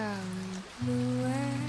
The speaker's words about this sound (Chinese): 下雨了，坐在窗前，玻璃上都是雨水的痕迹